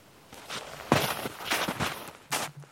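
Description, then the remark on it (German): Slow, careful footsteps crunch over forest ground as two people advance cautiously, a few deliberate steps spaced apart with brief pauses between them as they stand still to listen, with no talking. “Vorsichtig steigen wir voran.”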